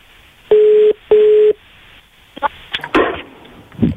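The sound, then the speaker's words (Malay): A phone line's ringing tone sounds twice in quick succession, two steady electronic burrs, followed by clicks and muffled handling noise as the call seems to connect, all thin and band-limited, as a radio host phones a woman live on air. “kita akan telefon uh, Marshila sekarang”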